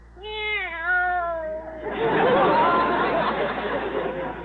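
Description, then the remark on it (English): A single long, wavering meow from Minerva, a cat, sounds clearly, then gives way to a loud, sustained wash of crowd-like noise that fills the rest of the moment. “This cat is dog happy. I think she'd even respond to a dog she'd never heard of before, like Bowser.”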